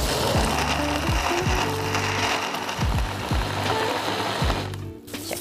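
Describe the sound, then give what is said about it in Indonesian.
A blender grinds ice cubes together with a batter of mushroom broth, sugar, baking soda and sesame oil. It makes a loud continuous motor roar with repeated rattling, clattering bursts as the ice chunks knock against the jar, with no voices. “es batu baru kita giling bersamaan nah es batu ini bikin adonannya jadi nggak terlalu encer pemirsa karena kalau misalnya kita pakai air pasti adonannya lebih encer kita blender dulu semua”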